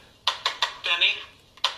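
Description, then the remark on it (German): A mobile phone left switched on rather than on silent chimes: a quick run of bright, evenly spaced electronic blips, a longer warbling tone, then two more blips, fairly loud against a quiet background. “Also es ist durchaus zu entschuldigen, dass ich das Handy anhabe in diesem Fall, aber ich hätte es natürlich durchaus auch auf lautlos machen können.”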